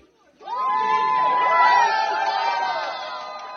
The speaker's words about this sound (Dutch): Je hoort hier een bruiloft van een Oekraïns stel gisteren in Kiev. Het geluid is afkomstig van een video die veel gedeeld werd op de socials. Door de bombardementen van de Russen was het huwelijk eh, ondergronds, in een schuilkelder van een flat